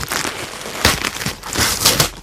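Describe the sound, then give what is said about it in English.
Crinkling and ripping of wrapping paper, with several sharp tearing bursts over a steady rustle as the last remaining gift is opened; no one speaks. “Uh, we have one more gift left to open.”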